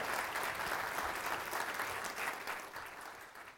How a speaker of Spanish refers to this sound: Give a big hand to the Lord.